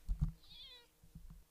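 A cat lets out one short, thin, high-pitched meow, soft, at 7:30 in the morning, with a few low muffled thumps before and after it and no voices.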